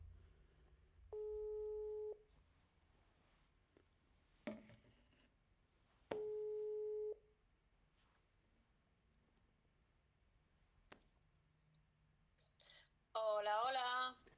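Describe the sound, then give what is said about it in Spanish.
A live phone call is placed to a guest: two steady ringback tones, each about a second long, pulse with long silent gaps and faint clicks between them, before a burst of voice comes through the phone line at the end. “Bienvenidas, bienvenidos, bienvenides a todos para empezar este stream voy a hacer una llamada en directo.”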